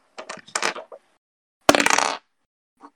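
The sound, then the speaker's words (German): Two eight-sided dice rattle and tumble across a hard tabletop in two quick, clattering rolls during a tabletop role-playing game damage roll: a scattered series of small knocks, then a louder, denser burst, ending with one faint final tap. Each die lands on six. “2D8 gleich zweimal nicht doppelt rechnen. Einfach zwei Würfel. Zweimal.”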